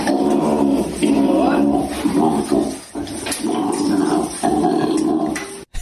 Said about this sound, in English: But get this this is the sound the koala bear makes.